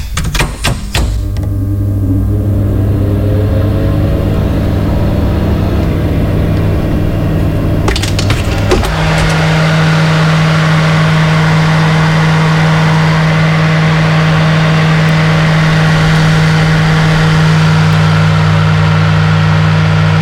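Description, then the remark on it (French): A car engine hums steadily and loudly throughout, with a brief clatter partway through before the motor carries on with a stronger, rougher drone. No one speaks. “Il y avait une voiture.”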